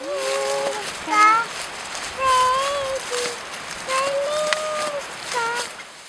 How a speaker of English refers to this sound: That is video of a two year old girl singing … while riding in her mom's backpack deep in a forest.